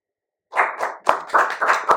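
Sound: people clapping hands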